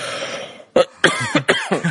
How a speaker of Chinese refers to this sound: sorry，咳嗽一下。